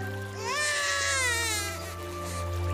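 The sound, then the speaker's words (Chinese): A baby cries in a continuous, high wavering wail that rises and bends in pitch, fairly loud over a steady low hum, with no one speaking, in a dramatized Bible reading of Pharaoh's daughter finding a Hebrew baby in a basket among the reeds by the river. “孩子哭了，她就可怜他。”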